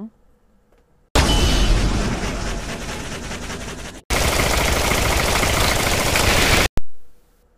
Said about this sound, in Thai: ทันใดนั้นเสียงก็ดังขึ้น ดังขึ้น มีเสียงคล้ายๆกับปืน ดังสนั่นแก้วหูฉัน และมีเสียงปืนเลเซอร์คล้ายๆในหนัง